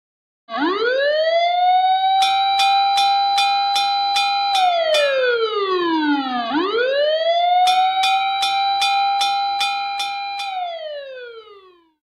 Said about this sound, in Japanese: これは消防車です。